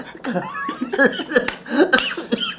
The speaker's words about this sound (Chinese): 哎、你不要这样，不要咳。